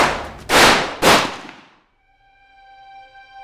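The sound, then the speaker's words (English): Two loud gunshot sound effects fire about half a second apart, each with a harsh crack and a trailing decay, followed by a quiet, sustained ringing chime-like tone. No one speaks. “Your muscles spasm. And you fire.”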